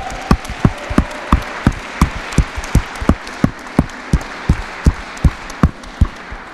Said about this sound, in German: Und lass uns einen fetten Applaus geben, das ist die beste Entscheidung, die wir treffen können.